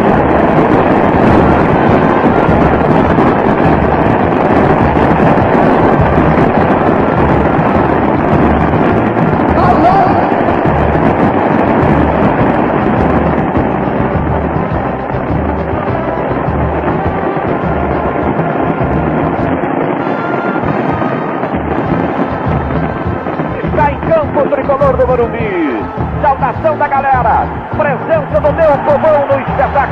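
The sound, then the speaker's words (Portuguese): A huge crowd of São Paulo supporters in a football stadium, at a deciding match of the Campeonato Paulista, cheers and roars excitedly, a dense, continuous wall of noise that stays loud throughout, with no single voice standing out. “Olha a empolgação, olha a animação, foi a chance também da torcida tricolor.”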